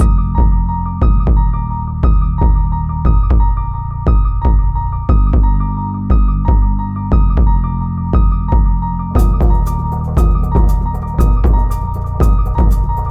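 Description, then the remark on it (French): An upbeat, festive disco track plays loudly on Radio Phoenix, driven by a steady thumping beat under sustained synth chords, with crisp hi-hat or cymbal hits joining partway through; no vocals yet. “Alors sur cet extrait qu'il vient de dévoiler, il nous offre une ambiance pour le moins disco et festive.”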